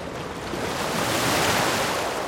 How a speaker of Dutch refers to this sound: Jongens en meisjes, de open oceaan is gigantisch groot. Het is bijna niet voor te stellen. En ik bedoel niet alleen het deel dat ik nu kan zien. Ja, natuurlijk, zover als ik om me heen kan kijken, zie ik zee.